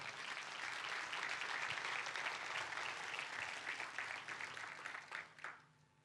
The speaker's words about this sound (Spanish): Denle un fuerte aplauso.